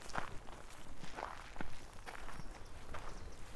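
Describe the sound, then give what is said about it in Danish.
Footsteps walking at a steady, unhurried pace down from a motorway rest area toward a meadow, each step a soft crunching thud over a low outdoor rumble, about one stride every half second, with no talking. “Man parkerer ved en resteplads på motorvejen, og så bevæger man sig ned mod engarealet.”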